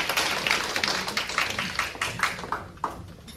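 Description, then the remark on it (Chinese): A class audience applauds to thank a consultant for a talk: a dense patter of many hands with some sharper individual claps standing out, thinning and fading toward the end. No one speaks. “我们再连续掌声哈”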